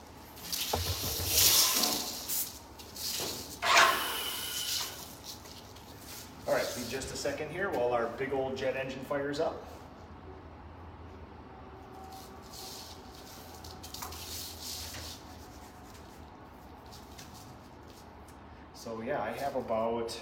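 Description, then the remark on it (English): Short bursts of a paint sprayer's loud hiss as the pattern is tested before spraying a door, followed by a person talking and a steady, low whoosh of air from a spray booth's air handler before the spraying starts again. “I'm going to test my pattern off here, and then we'll spray a door.”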